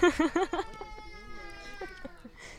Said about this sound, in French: On a un bébé qui pleure en live là.